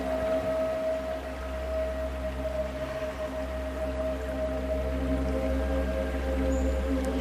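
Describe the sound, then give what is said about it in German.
Calm meditation music for a guided seated breathing meditation, with long, steady sustained tones and a low droning hum, soft and unchanging throughout, with faint watery textures drifting over it and no one speaking. “Lausche ein wenig der Musik, die du hörst.”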